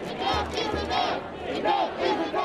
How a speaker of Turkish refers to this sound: Ancak eylemciler o yasağı aldırmadı. Nefes alamıyorum sloganlarıyla yürüyüşe geçtiler.